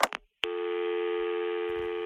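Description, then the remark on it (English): A couple of quick clicks, then a steady, buzzy telephone tone comes on and holds without a break, the kind heard when a dialed number is not in service. “We're sorry, the number you have dialed is not in service at this time.”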